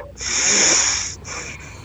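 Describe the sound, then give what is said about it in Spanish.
A deep, forceful breath drawn in through the nose to fill the full lung capacity, hissing with a whistly edge, lasting about a second, then continuing in two shorter pulls of air. No talking. “Ah, todos los que nos están oyendo se colocan la mano en la tripa y uno debe respirar por la nariz tan profundamente llevando la intención a toda la capacidad pulmonar de manera que la mano se mueva.”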